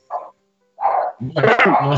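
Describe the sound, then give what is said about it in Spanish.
Dogs bark: two short, sharp barks separated by a brief pause, followed by a louder, longer burst of overlapping barking and yelping. “controla a esos perros.”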